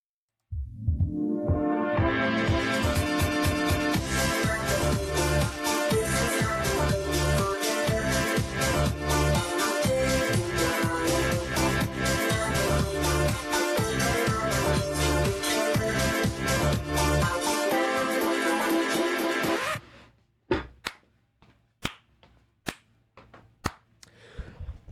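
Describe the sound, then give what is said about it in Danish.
A Nokia 7370 ringtone plays: a loud, busy electronic tune with sharp percussive hits that runs for about twenty seconds, then cuts off abruptly, leaving a few faint clicks. “men jeg faldt over i Nokia 73 70'eren, og den lyder sådan her.”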